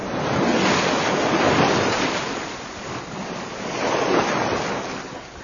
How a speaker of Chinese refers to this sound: 我们又听了一小段的海的声音。